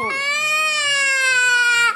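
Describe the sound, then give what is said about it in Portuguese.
A person fakes a loud, drawn-out wailing sob, one sustained tremulous cry sliding slowly downward in pitch before cutting off abruptly. “Engole o choro.”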